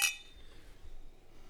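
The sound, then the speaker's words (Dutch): A single bright, sharp clink of beer glasses knocking together in a toast at the start of a beer tasting, with a short ringing tone that fades quickly into quiet background noise. “Uh, we beginnen eerst gewoon met een biertje en dan beginnen we met ons eigen blond bier. Proost.”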